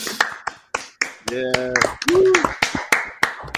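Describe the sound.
A burst of audience applause: sharp, irregular hand claps, fairly loud, with voices calling out and talking over the middle of the clapping.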